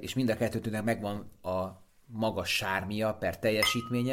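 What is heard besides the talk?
wine glasses clinking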